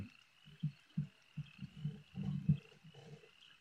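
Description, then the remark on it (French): A voice imitates a crow with a rapid, irregular run of low, raspy croaking caws, moderately loud, with no other talking. “Un corbeau qui crie”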